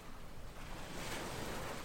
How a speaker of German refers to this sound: Das Meer rauscht und die Sonne die geht gerade unter.